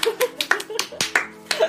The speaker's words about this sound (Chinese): 这这就代表着我们又可以很任性的不请嘉宾啦，鼓掌。